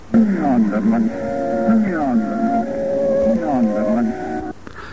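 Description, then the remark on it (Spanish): A song recording played in reverse: warped, gliding vocal sounds swell and slide in pitch with an unnatural, backward flow, steady and fairly loud for about five seconds. The reversed vocals are said to hold the message 'turmia on dimen', meaning 'turn me on, dead man'. “Al revés, tenemos un primer mensaje que habla acerca de la incitación a la lujuria y al sexo.”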